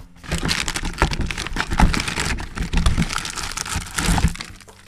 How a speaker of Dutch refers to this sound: Ik heb hier een nieuw vers pak crackers. Die maak ik heel eventjes open.